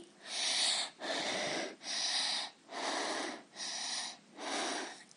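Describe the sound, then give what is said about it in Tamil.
A person imitates labored, wheezing asthmatic breathing: five or six raspy, airy breaths in steady succession, each with a brief pause, fairly loud. “அடுத்து Wheeze மூச்சிரைத்தல் person affected with asthma views commonly”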